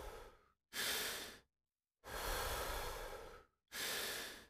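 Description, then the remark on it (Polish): Slow, deep full breaths during a guided breathing exercise: airy, breathy inhales and long, full exhales alternating with brief pauses of silence between them, and no talking. “Pełny wdech i wydech.”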